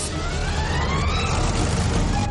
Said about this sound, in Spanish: Un camión y un pequeño coche descapotable se acercan a los saqueadores.